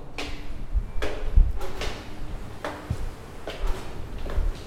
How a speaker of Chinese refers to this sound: 其实我只会站在屋顶门口，就在这里，好。就在这里就好，我不要出去外面吹风淋雨，就是在这边录参数台风的这个风声。